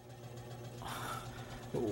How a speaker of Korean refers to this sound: 거실의 후끈한 열기 속에서 선풍기가 덜덜거리며 돌아가고 수박 냄새와 사람의 땀 냄새가 흘러나왔다.